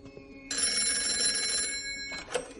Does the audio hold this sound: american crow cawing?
no